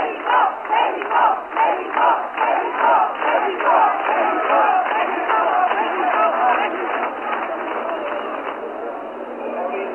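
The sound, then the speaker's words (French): A huge stadium crowd at the Olympic Games opening in Mexico roars and cheers for the Mexican team, everyone standing on the benches to applaud, opening with rhythmic, pulsing chants before settling into a continuous loud wall of voices. The sound is muffled and narrow, like an old broadcast recording. “Et eh, écoutez, eh, écoutez maintenant les manifestations pour euh, l'équipe mexicaine.”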